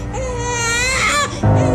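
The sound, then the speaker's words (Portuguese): A sick baby wails in a sustained, high-pitched cry that rises and wavers, fairly loud, before breaking into a lower, fuller sob near the end. “Agora o bebê está doente e os pais preocupados.”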